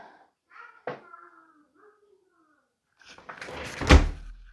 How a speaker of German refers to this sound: Entschuldigung. Jetzt musste ich mal kurz ähm, meine Tür zumachen.